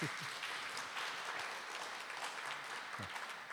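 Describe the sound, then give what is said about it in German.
Steady audience applause fills the whole stretch, a dense wash of many hands clapping at an even level, with a few brief low thuds mixed in. “Ja, recht hat, ihr dürft auch klatschen zwischendurch.”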